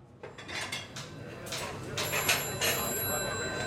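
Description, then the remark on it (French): Telephones ring repeatedly in a busy Domino's restaurant in East Lansing, Michigan, in January 1971, their bright bells layered with clinking dishes and cutlery and a murmur of background voices, steady and continuous throughout. “Les téléphones ne s'arrêtent plus de sonner.”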